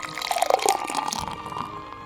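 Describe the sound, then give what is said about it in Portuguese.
Water pours into a glass during a prayer, a short burst of splashing and trickling with a few drips, easing into a softer, faintly ringing fill over about two seconds. “E neste exato momento, irmanados em pensamento com os amigos espirituais que nos acolhem e envolvem, recebamos nesse copo d'água”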